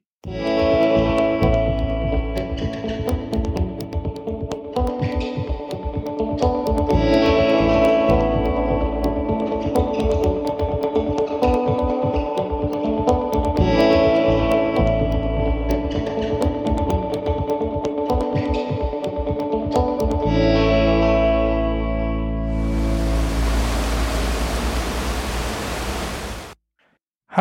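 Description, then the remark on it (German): A steady, continuous rush of a stream flowing outside a room window in Chur on the Rhine, with no voices; the hiss grows fuller and brighter toward the end before cutting off. “das, was ihr gerade gehört habt, war der Bach vor meinem Zimmerfenster.”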